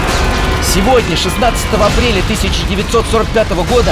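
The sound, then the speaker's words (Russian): Heavy Soviet artillery and Katyusha rocket fire of the First Belorussian Front, opening the breakthrough toward Berlin, rumbles continuously and loudly, a dense low roar with scattered booms, while a man speaks clearly over it. The barrage lasts half an hour. “Первый Белорусский фронт начал прорыв на Берлин А долго это грохотать будет?”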